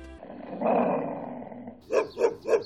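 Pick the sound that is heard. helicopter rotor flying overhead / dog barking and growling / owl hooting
dog barking and growling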